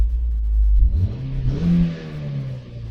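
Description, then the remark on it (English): A car engine revs up, heard from inside the car, its low rumble climbing in pitch and then holding at a steady drone for a few seconds. “We're recording in our car”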